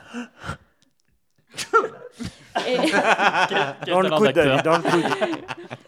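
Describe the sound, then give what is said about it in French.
A couple of sharp sneezes burst out after a short pause, then a voice carries on with talk and a bit of laughter. “Et entre deux éternuements, va-t-il réussir à délivrer ses fameux conseils de coach”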